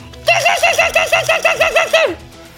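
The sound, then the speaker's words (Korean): A person mimics a kestrel's call: a fast, shrill run of about a dozen sharp 'kee-kee' notes lasting nearly two seconds, loud, with no talking over it. “그 다음에 황조롱이”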